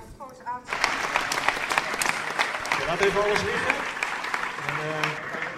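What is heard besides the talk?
audience applauding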